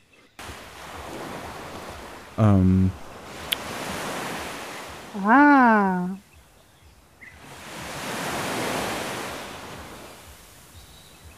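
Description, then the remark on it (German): Water waves wash in slow, rolling swells, a steady rush that rises and fades, with one broad surge toward the end. A voice briefly breaks in twice with short hesitant sounds. “Und äh, im Wasser, da fällt mir ein, es gibt ja Wasser.”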